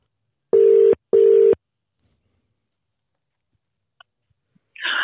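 An outgoing phone call's ringback tone plays as a steady double burst, two even beeps in quick succession, followed by near silence with a couple of faint clicks and a brief rustle as the line connects.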